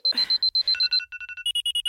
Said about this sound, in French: Le réveil qui sonne trois fois, car j'ai des problèmes avec l'autorité et je suis incapable d'obéir à qui que ce soit, même à un réveil. Réveille-toi, même moi ça me fatigue ce son.